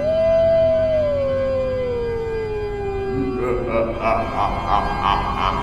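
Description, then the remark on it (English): A werewolf-like howl: one long, loud cry that slides slowly downward in pitch for about three seconds, then breaks into a flurry of choppy, higher yelping wails. “watch out for werewolves. Although, some of them sound like they're not bad guys.”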